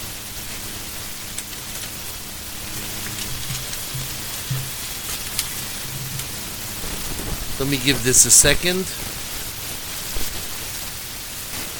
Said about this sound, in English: Just a second. We're having some distortion here. Okay. I don't know what's going on.